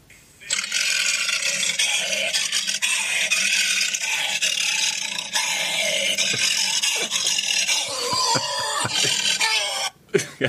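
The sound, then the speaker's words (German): A trained voice actor roars continuously into a tin trash can as a lion's roar for nearly ten seconds, his voice loud, harsh and rasping, smeared into a clanging metallic echo, then breaking off into a few short bursts. “wie sich das anhört, wenn ein ausgebildeter Synchronsprecher in einen Blechmülleimer reinschreit.”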